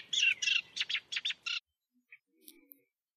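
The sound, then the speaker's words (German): Eurasian reed warbler song: a quick run of scratchy, chattering notes repeated in short bursts, clear, then a pause with a few faint, scattered chips. “Äh, fangen wir mit dem Teichrohrsänger an, oder?”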